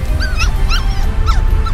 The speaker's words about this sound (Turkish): Ay karnımı kaşı diyor. Ay canım yerim seni ben. Ay senin göbüşünü yerim ya. Tatlım sokak köpeği o ne de olsa. Dikkat et mikrop kapma.